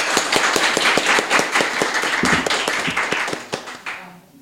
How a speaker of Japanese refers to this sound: じゃちょっと皆さん拍手お願いします。